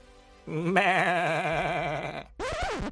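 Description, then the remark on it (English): A sheep bleats in a long, wavering cry lasting nearly two seconds, then gives a shorter second bleat. Both calls are loud, with no talking. “Is this a city of sheep wizards?”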